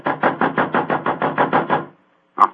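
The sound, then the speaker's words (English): A rapid, steady run of about ten loud knocks on a dressing room door at a theater, followed by a short silence and one final knock. No voices. “Oh, it must be in his dressing room. I'll knock again.”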